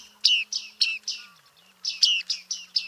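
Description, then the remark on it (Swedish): A series of bright, ringing 'ching' calls from bearded reedlings clambering about inside reeds by a jetty, about nine in two quick bursts separated by a short pause, clear with no voices. “Och då var det ju skäggmesar som höll på att klänga runt där.”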